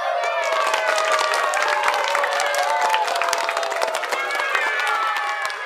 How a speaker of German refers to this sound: Sie stellten sich im Spalier auf und begrüßten ihren Retter jubelnd und mit donnerndem Applaus.